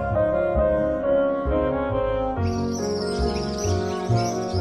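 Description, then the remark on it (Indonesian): Squirrels chatter in quick, high chirps that start partway through and continue over steady background music, fairly clear. “Tupai mulai bersuara ketika mereka melihat Yesus seolah-olah berkata, "Halo Yesus."”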